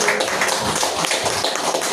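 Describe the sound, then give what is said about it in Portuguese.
An audience at a worship service claps together for the Lord in a dense, steady burst of applause, many overlapping hand claps at an even, fairly loud level with no voices heard. “E as palmas vão o nome do Senhor.”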